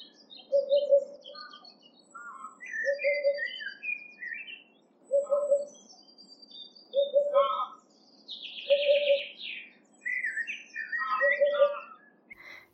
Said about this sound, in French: On reconnaît aussi la huppe facile grâce à son chant, composé de trois syllabes. Elle s'entend de très loin. Poup poup poup, poup.